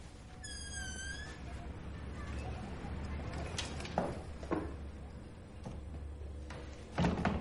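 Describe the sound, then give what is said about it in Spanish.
A high creaking squeal, then a series of dull thuds and knocks as a door shuts and a street shutter is pulled down, over a steady low background hum. “Se escucha cómo cierra la puerta y baja la persiana de la calle.”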